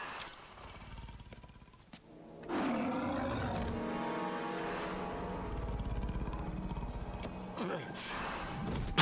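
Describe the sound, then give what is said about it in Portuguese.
A lion lets out a long, deep roar that swells up loud after a quieter, rumbling start, with growling harmonics sustained for several seconds. “Ele assusta com o leão e vai pro lado do leão?”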